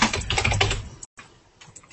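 Rapid, clattering keystrokes on a computer keyboard, fairly loud for about a second, then a brief silence before fainter, sparser tapping resumes.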